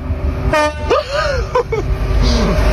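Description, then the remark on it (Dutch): A train horn gives a short, loud toot over steady rumbling background noise, followed by brief bursts of voices and laughter. “Toet het hij nog een keer?”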